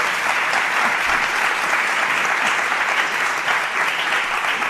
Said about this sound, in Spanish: Un momento, que están muy callados. Vamos, a que den un aplauso para que se vea que estamos con público.